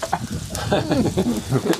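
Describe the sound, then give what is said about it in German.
A black Alpine pig kidney sizzles on a grill with a steady, crackling hiss that runs through the whole moment, with faint murmuring voices underneath. “den Nierl hört man jetzt auch schon.”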